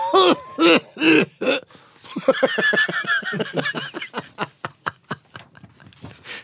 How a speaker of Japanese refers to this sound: 町長の咳がひどくみんな心配しているのに盛り上がれと咳込む